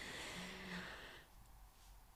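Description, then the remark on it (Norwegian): A single faint, raspy snore from someone lying beside the speaker, drawn in for about a second, then fading into quiet room noise; soft and close, with no talking. “Og nå kan det hende det hører litt snorking, for nå ligger hun og snorker ved siden av meg.”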